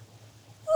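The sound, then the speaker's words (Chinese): A single sharp cat meow bursts in at the very end, loud and high-pitched with a bright tonal edge, after a stretch of faint low rumbling. “喵！ 天哪，是九命怪猫，走开！”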